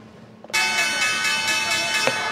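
A bell suddenly starts ringing and keeps going in a loud, bright, continuous clang for about two seconds, with no one talking.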